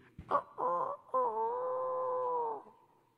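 A single hoarse, strained rooster crow: a few short broken notes, then one long drawn-out call that fades, loud with no other sounds.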